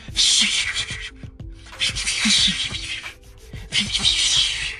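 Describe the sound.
A voice beatboxes the sound of a very thin, nearly invisible jump rope whipping through the air as jumpers skip: three loud, airy swishing bursts in a steady rhythm, with soft low thumps underneath, prominent.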